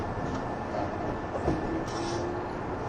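A 185 series express train, the Odoriko No. 106 service from Izukyu-Shimoda to Atami, running with a steady, dense rumble of wheels and motors, faint whining tones gliding in and out, and a constant level throughout with no voices.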